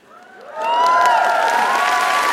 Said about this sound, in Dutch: En nu al applaus.